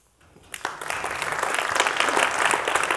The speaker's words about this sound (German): Applaus